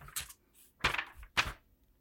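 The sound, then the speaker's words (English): Pages of a Bible being turned as someone reads from it, making three short papery rustles spaced about half a second apart, with no one speaking. “as pages turning, so please ignore that”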